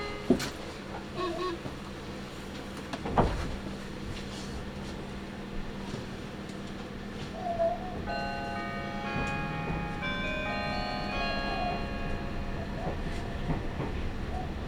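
A Meitetsu (Nagoya Railroad) Toyokawa Line electric limited express train, running from Toyokawa-Inari toward Kō, pulls away from a station with the next stop Yawata: steady rumble with a sharp clunk early on, then a rising, multi-toned motor whine climbing in pitch as it accelerates.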